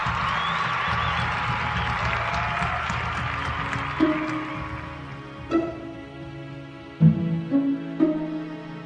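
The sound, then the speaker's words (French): A large crowd in Durrës, Albania, cheers and applauds on 10 August to welcome the new sovereign, Prince Ali Medine, in a dense, steady roar, which fades after a few seconds as loud, punctuating musical stabs take over. “Le 10 août, une foule s'est rassemblée pour accueillir le nouveau souverain. Le prince Ali Medine est acclamé.”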